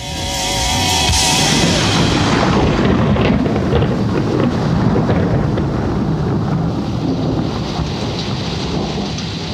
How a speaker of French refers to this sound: le bruit de la foudre à la toute fin de la chanson est authentique, enregistré par … lors d'un énorme orage